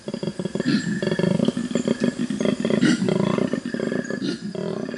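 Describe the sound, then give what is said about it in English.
A koala up in a tree in a eucalypt forest bellows with a deep, rasping, snore-like call, a loud run of rhythmic grunting pulses that rises and falls for several seconds with no one talking. “So it's just easier to yell.”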